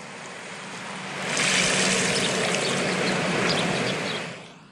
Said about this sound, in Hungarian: És azért vettem fel, mert hogy a tenger zúgásának hallgatása közben egy kis repülő zúgást is mindig lehet hallani majdnem, mert hogy annyira sűrűn járnak a repülők, a légi járatok a labdarúgó világbajnokság idején